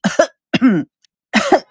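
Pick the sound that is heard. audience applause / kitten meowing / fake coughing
fake coughing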